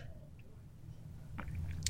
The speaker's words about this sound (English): And uh, I'll, I'll have to drink some more water.